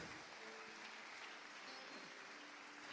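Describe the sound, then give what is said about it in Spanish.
A crowd claps steadily for the performer who played the Devil, a dense wash of applause that holds at an even level from start to finish, with no voices standing out. “Denle un aplauso al, Diablo.”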